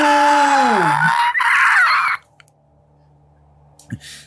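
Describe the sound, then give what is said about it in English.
A person voices a loud, drawn-out monster scream as a malevolent spirit: a harsh wail that slides down in pitch, then breaks into a raspy roar for about two seconds before cutting off into near silence. “Don't do an encore scream.”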